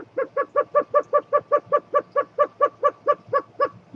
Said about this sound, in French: En vrai, le géocoucou ne fait pas bip bip, non, il fait ça.